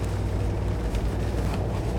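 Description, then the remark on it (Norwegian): Heavy rain pours steadily outdoors on a large gravel area surrounded by trees that looks like an abandoned construction site, with wind. A dense, unbroken wash of hiss over a deep rumble holds at one loud level throughout, with no voices. “Eh, det regner voldsomt i dag.”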